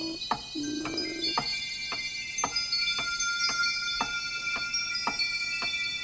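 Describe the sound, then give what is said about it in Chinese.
A clock ticks steadily, about twice per second, each tick a sharp, crisp click. Soft sustained high tones hang underneath, with a brief low hum early on. “滴答滴答滴答滴答滴答滴答滴答，时间滴滴答答的过去了。”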